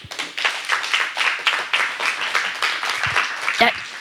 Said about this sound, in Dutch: Mag ik een eh, groot applaus